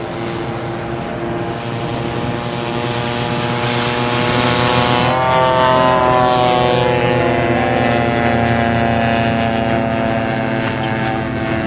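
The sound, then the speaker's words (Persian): A small propeller engine of a radio-controlled model plane drones steadily and loudly on a sunny day, its high buzzing pitch bending and shifting midway as the plane passes and turns overhead, with no voices. “رادیو کنترل اصطلاح باند کردن به معنی جفت کردن می باشد بعد توی روز آفتابی پسره با قهرمان می میره هواپیما بازی کنه”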